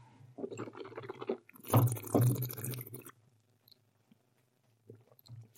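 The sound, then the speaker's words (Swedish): A wet slurping burst as a sommelier draws air through wine in the mouth to aerate it, gurgling for a couple of seconds, then quiet with a few faint mouth clicks. “Man vill ju syresätta vinet in, i munnen.”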